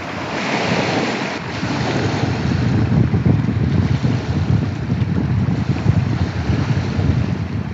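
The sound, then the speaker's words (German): Steady wash of Loch Ness waves breaking on the shore right outside a door in the Scottish Highlands in winter, a continuous rumbling surge with gusty wind buffeting the microphone, loud throughout with no voices. “Dazu hat er mir auch noch eine kurze Aufnahme von der Loch Ness Brandung direkt vor seiner Tür zugeschickt.”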